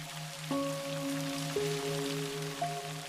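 Soft, steady rain hiss with three resonant, ringing raindrop plinks about a second apart, over a gently pulsing low hum; no voices.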